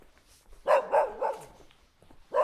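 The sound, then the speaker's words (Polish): Fenced-in dogs in a village bark in a quick run of three or four sharp barks, then fall quiet before one more bark at the end, with no one talking. “Psy ogrodzone.”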